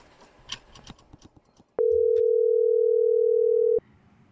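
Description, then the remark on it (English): A telephone dial tone of an outgoing call to a cell phone sounds once as a loud, steady hum lasting about two seconds, after some faint handling noises, then cuts off abruptly. “You call her cell phone to tell her, I love you.”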